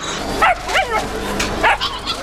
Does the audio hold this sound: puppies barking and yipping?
yes